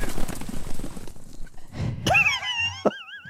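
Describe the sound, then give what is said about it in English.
A rough, clattering commotion gives way to a horse's loud whinny, a shrill wavering neigh that trembles for about a second before breaking off. “Please, my horses!”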